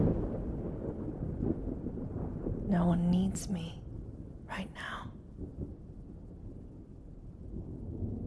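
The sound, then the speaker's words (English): A low, steady rumble of rolling thunder fills the background throughout, deep and continuous, while a soft voice speaks a few quiet words over it. “I deserve to listen to the thunder for just this moment.”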